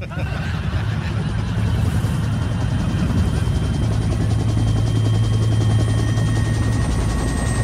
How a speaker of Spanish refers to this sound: Ah, caray, ¿qué es eso? ¿Es un helicóptero? Un helicóptero. Viene un helicóptero.